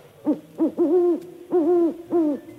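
An owl hoots alone, heard over a telephone line: two short hoots followed by three longer, drawn-out ones, low and tonal, arriving in a steady rhythm at moderate volume with no voices.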